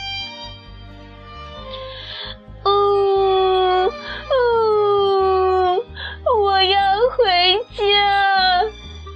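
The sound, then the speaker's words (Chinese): A human voice imitates a lost duckling crying sadly: soft sobs, then four loud, drawn-out wavering wails that slide down in pitch and curl back up, with short breaths between. “小鸭子迷路了，哭得好伤心啊！”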